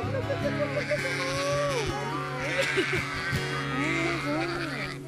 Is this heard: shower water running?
no